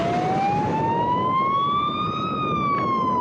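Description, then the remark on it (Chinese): An ambulance siren wails loudly as it speeds past near a laboratory in Songjiang District at night, its tone climbing in one slow sweep and then sliding down, over a steady roar of road noise with no voices. “事发当晚，不止有人目击实验室附近救护车疾驶而过，还有广大网友的 po 文见证。”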